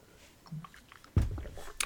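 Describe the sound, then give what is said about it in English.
Someone takes a quick drink of water: a near-silent pause, then a wet gulp and soft swallowing sounds, ending with a small mouth click. No talking. “Quick drink of water there.”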